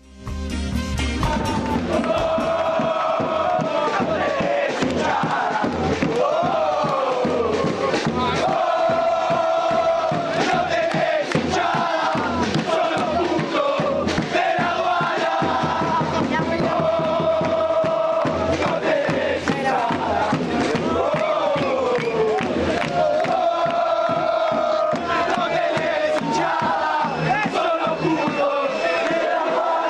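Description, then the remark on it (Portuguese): A large crowd of Anders football supporters chants loudly in unison at their arch-rival, saying the rival has no supporters, a continuous sung melody carried by many voices over a steady rhythmic pulse, never letting up for the full length. “Então aqui a torcida do Anders é, canta para o seu arquirrival, é, dizendo que não tem torcida e que é um time cagão, enfim.”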